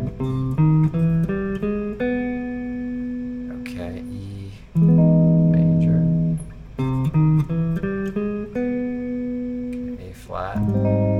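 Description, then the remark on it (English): A C major chord rings out in sustained, steady tones while short melodic notes are played over it in a quick, stepping pattern, with a few brief pauses between phrases. No one speaks. “Okay, so let's hear how they sound a little bit over some of these chords. So C major.”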